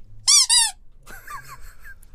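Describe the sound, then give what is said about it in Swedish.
Two loud, high-pitched squeaks from a pressed rubber toy shark, back to back, followed by a fainter, wobbly squeaking tail as the toy reinflates. “Eh, men när det kommer riktiga spoilers, alltså spoilers inför framtiden, säsong 7 och framåt, då eh, kommer vi trycka på spoilerhajen först.”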